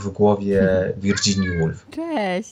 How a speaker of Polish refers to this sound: Y, odezwał się mój kot, więc tutaj Super. jakby chciałem poinformować wszystkich Ciekawe, że, to, że, że to mój kot, ja jestem winny temu, że on teraz y, miał, czy dlatego, że nie chcę mu otworzyć drzwi, ale już mu otwieram.